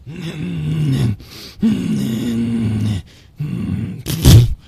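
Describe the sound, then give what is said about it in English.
A voice imitates the straining grunts of someone on the toilet in a bathroom: three long, drawn-out, guttural groans with short pauses between, then a sharper, louder burst at the end. All loud, with no other speech. “But what I don't like is when you come into the bathroom and all I hear is.”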